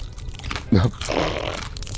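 A wet crunch bursts out, followed by a shorter stretch of grinding chewing, teeth working through bones and sinew, heard alone with no talking.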